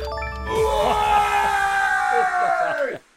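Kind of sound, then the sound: human body sound, man shouting loudly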